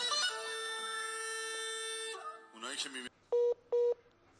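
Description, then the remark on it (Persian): A WhatsApp call ringing tone sounds twice in quick succession, two short, clear, identical electronic beeps near the end, following a sustained tonal, voice-like sound and a brief burst of noise. “حتی اگه به هم زنگم نزنیم با صدای واتساپ تو گوشم میپیچه”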